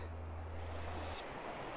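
Soft, steady wash of small waves lapping a calm Gulf beach near Naples, with clear water and little wind, faint and continuous, with a low droning hum underneath for the first second or so.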